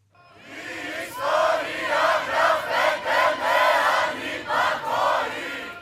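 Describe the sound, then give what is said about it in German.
A large crowd of protesters roars and chants during evening riots in Athens, Greece, in loud, surging waves, with rhythmic bursts of shouting rising and falling repeatedly over a constant wash of voices. “Gestern Abend kam es in Athen zu Protesten und Ausschreitungen.”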